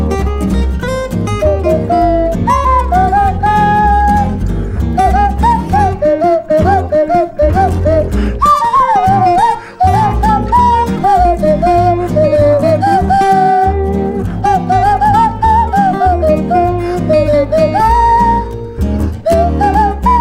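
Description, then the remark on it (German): A ukulele strums a steady accompaniment while a nose flute carries a wavering, breathy melody on top, playing a theme tune, loud for about twenty seconds with no talking. “Ich spiele es direkt hier auf meiner, auf meiner Ukulele. Zimmer ich das jetzt mal los. Kannst du auf der Nasenflöte ein bisschen mittröten?”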